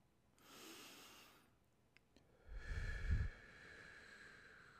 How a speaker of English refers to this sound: breathe into the microphone so that people pull their faces away. Um, let's just concentrate on our breathing right now. We're just breathing in. And breathing out.